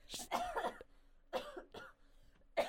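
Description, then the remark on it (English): A series of harsh coughs in quick bursts, about four separate hacks spread over a few seconds with brief pauses between them, fairly loud and with no one talking. “Cough. I apologize. I'm moving as far away as possible.”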